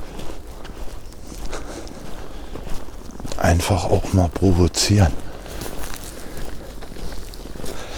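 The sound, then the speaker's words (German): Crunching footsteps of a person carrying a microphone run through deep snow in a deep forest, a steady trudging rhythm with a brief burst of talking in the middle. “Mit dem Mikro jetzt durch den Schnee zu rennen, durch den tiefen Wald.”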